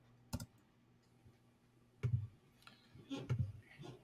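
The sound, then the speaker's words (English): Several irregular button clicks on a computer, sharp, with a few spaced out and a quick cluster near the end, over a low steady hum and no talking. “So I'm um, clicking buttons here, clicking buttons.”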